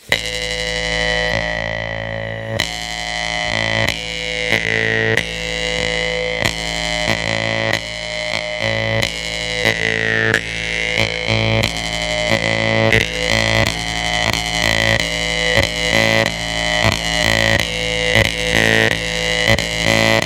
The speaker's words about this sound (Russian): это правда, потому что когда мы играем на варганах, это всегда стопроцентная импровизация. Практически никогда ничего не заучивается схематично, чтобы никогда не терялась вот этот пульс, живой, животрепещущий пульс и вибрация жизни в игре на хомусе.